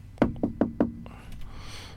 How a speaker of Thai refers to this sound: เคาะประตูเรียกก๊อกก๊อกก๊อก